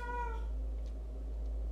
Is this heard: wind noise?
no